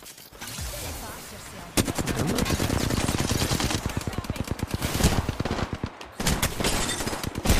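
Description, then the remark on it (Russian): Rapid bursts of video game gunfire rattle continuously as the player gets shot, dense automatic shots in quick succession with a few brief pauses, loud with a busy, layered mix. “Getting shot”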